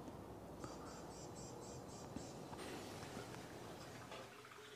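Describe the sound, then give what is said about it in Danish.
Soft, steady splashing and gurgling of aquarium water in a house, with a quick series of light bubbling ticks early on. It stays faint and continuous throughout, with no voices. “Hvis det plasker sådan lidt i baggrunden, nogle små klukkelyde, så er det altså akvarierne, der plasker i baggrunden.”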